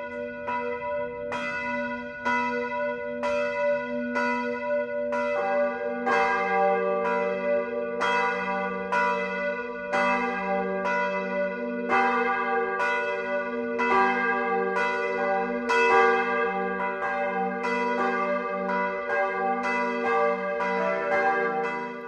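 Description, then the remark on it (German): The noon bells of St. Matthäus, an Evangelical-Lutheran parish church in Regensburg, ring at 12 o'clock, several bells pealing together in a steady, overlapping rhythm, with bright strikes over a sustained low hum, loud and continuous with no voices. “Das Mittagsläuten kommt heute aus St. Matthäus in Regensburg.”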